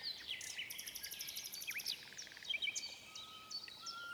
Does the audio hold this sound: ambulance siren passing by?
no